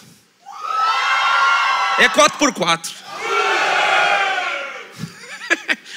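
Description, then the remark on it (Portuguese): A crowd cheers and shouts loudly in two sustained bursts, each lasting over a second, as the girls' and boys' supporters try to outdo each other in a mini competition on a stage. Brief spoken words come between the bursts and again at the end. “Cadê a torcida das girls aí? E cadê a torcida dos boys?”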